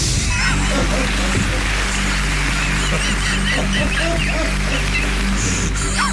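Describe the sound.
Steady applause from a crowd, a dense crackle of many hands clapping that holds at an even loudness for several seconds over a low hum, with a few voices mixed in.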